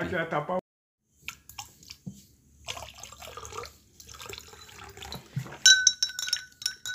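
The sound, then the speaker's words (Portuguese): After a brief voice, hot coffee (a cafezinho) is poured into a cup in Barra do Jacuípe with a steady liquid splash, then a few bright ceramic clinks ring out near the end. “Cafezinho quente.”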